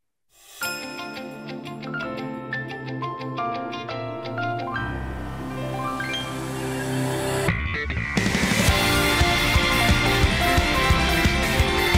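A theme song begins with bright, chiming bell-like tones over a steady beat, then bursts into a louder full-band arrangement partway through. It plays close and clear, with no talking.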